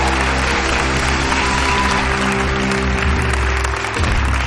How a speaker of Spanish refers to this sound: Un fuerte aplauso